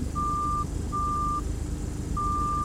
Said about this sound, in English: That's internal. I forgot I still had that Cortex app installed. How do you shut down the. Oh, okay, so where's the message? Proximity monitor alert.